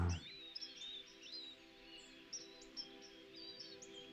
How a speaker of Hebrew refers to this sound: נשארו רק הציפורים. אז הנה יש לנו את הציפורים של החווה ככה ברקע, אפשר להתמקם, לעצום עיניים. נשים לנו איזה צלילים נעימים ברקע.